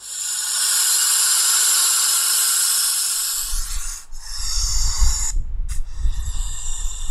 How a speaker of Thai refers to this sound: เพราะฉะนั้นเนี่ยเสียงของงูเนี่ยก็จะเป็นเสียงลมที่ผ่านตรงมาจากหลอดลมจากปอดนะครับแล้วก็ผ่านช่องแคบต่างๆในกระโหลกหรือเป็นเสียงที่ส่งตรงออกมาจากหลอดลมเลย